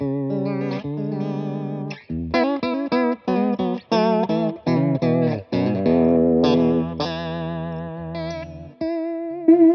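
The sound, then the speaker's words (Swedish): An electric guitar runs through an H9 effects pedal set to a deep, fast vibrato, its notes wobbling strongly in pitch as a series of chords and single notes ring out loud. “Och, och den är, nu är det mutat, och den här är ju ställd för, på jättemycket wobbel. Det är snyggt vibrator tycker ja.”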